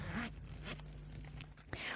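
The zipper of an old-rose leather purse is pulled open in a few quick, rasping bursts, fairly loud, with a faint low hum underneath and no talking.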